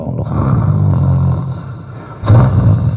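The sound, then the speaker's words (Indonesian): A man imitates snoring with his voice: two loud, low, rattling snorts, the first drawn out for about a second, then a pause before a shorter, rougher second snore. “kalau malam ngorok,”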